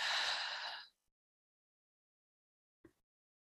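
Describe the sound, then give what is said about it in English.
A long, airy breath pushed slowly out through the mouth during a guided breathing exercise, fading after about a second, followed by silence and a faint short sound near the end. Quiet, no talking. “Again, breathing in through the nose, filling your belly with air, and out through your mouth.”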